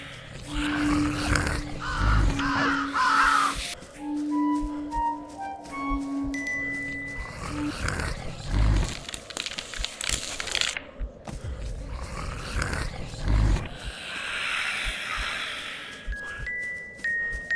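Growling, grunting zombie-like roars rumble through a video game soundtrack while the player dodges zombies left and right; short, bright tonal chimes, made by collecting lights that keep the screen from going dark, ring out repeatedly, some sustained and stepping up in pitch; no one speaks.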